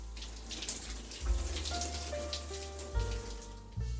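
Steady hiss of shower water spraying and pattering onto a surface, continuous, with a low plumbing hum and a few brief tonal whines underneath; no voices.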